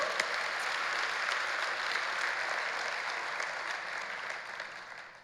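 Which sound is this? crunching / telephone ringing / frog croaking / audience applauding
audience applauding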